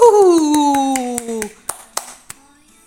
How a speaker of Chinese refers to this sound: 而这温暖的掌声，正是终结河马小姐失眠的美好乐章。